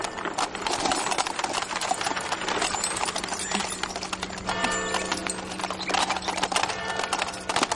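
The hooves of a four-horse carriage clip-clop steadily, a brisk, dense clatter on hard ground, with the rumbling rattle of the carriage underneath and no voices, as it arrives in the village square.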